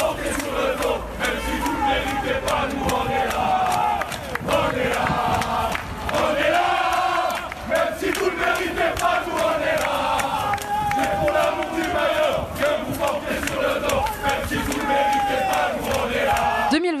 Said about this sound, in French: la colère des supporters marseillais qui se sont exprimés sur le parvis du Vélodrome. Fumigène, pétard, une centaine de supporters réclamaient la démission de Jacques-Henri Hérault avant d'être finalement délogés par les forces de l'ordre.